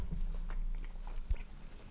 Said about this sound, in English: You done chewing?